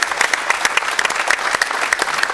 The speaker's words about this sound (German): Aber jetzt wollen wir erstmal äh, Thomas äh, Kessen begrüßen mit einem herzlichen Applaus hier aus München.